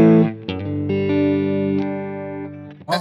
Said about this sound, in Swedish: Och den är, väldigt, den är byggd i metall och väldigt robust. Och det är en silikonfuss och en eh, diskantbooster i, i en. Så det är egentligen som två pedaler här. Mm. Eh, ja men vi låter lite med den.